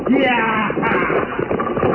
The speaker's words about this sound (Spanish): La carroza avanzaba velozmente entre la niebla. Jorvik dirigía los caballos lanzando sus gritos rabiosos y extraños.